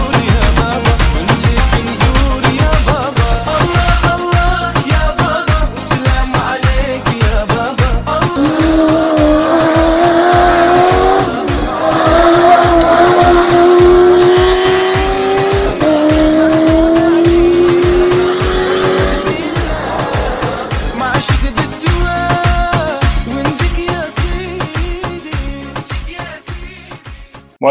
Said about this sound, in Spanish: Os espero a todos para empezar este nuevo año con el rugido de los motores.